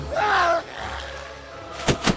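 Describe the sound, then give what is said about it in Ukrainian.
A brief strained vocal cry opens, followed after a pause by two heavy thuds in quick succession as a creature knocks a man down onto the floor, its claws digging into his shoulders; fairly loud. “Істота повалила його додолу, її кіхті вп'ялися йому у плечі.”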